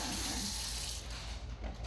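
Water runs steadily from a tap into a sink as dishes are washed, a continuous hissing rush that eases slightly partway through. No one speaks.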